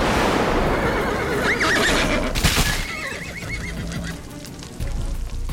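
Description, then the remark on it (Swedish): Riders' horses whinny twice in shrill, wavering cries as they stop abruptly after a sudden bang during a thunderstorm, separated by a sharp burst of commotion, with hooves clattering against a constant rushing background, on a journey from Regensburg toward Berlin and Silesia. “Hästarna tvärstannar.”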